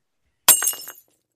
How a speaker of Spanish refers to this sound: Otro ejemplo sería la cantante de ópera. Una cantante que a través de su potencia pulmonar o cuerdas vocales es capaz de romper una copa de cristal